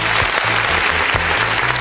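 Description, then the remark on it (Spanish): A burst of canned applause played as a sound effect: dense, steady clapping from a large crowd that holds an even loudness throughout the short clip, with no voices over it. “Oiga, sí, por eso le agradezco, doctor, y le pongo todos los aplausos del mundo.”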